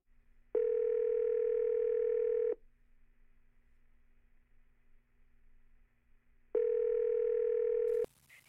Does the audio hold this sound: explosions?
no